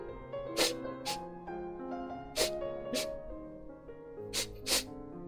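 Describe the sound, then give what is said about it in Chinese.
Sharp inhaling sniffs, about six quick breathy bursts in loose pairs, with irregular gaps between them, heard over a steady soft musical background. “那是一种吸气的声音。”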